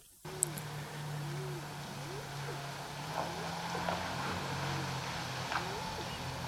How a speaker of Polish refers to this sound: Wyjeżdża samochód z lewej strony, przejeżdża przede mną, tu się schował za murkiem. Tutaj taka mała szykana i odjeżdża w stronę zachodzącego słońca.